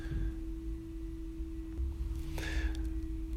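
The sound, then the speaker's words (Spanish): A hotel vacuum cleaner in Córdoba drones steadily somewhere in the background, a constant motor hum with a low rumble that stays unchanged throughout, fairly faint and with no one speaking. “por ahí de fondo escuchan un ruido, es la aspiradora del hotel, eh, que estoy acá en Córdoba.”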